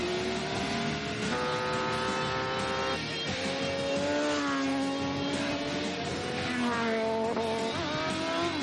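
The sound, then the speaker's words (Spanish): A motorcycle engine revs hard and loud, its pitch climbing and dropping through repeated gear changes as it speeds away, steady throughout with no voices. “Ethan vuelve a subir a la moto.”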